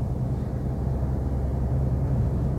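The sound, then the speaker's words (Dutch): A steady low rumble fills the space, like road and engine noise heard from inside a moving car, constant and fairly loud with no voices. “En ik denk dat dat ook uitmaakt dat ik daarom eh, lekker een aflevering kan inspreken vanuit de auto.”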